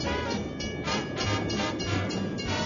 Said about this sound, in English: So we're on a moving train.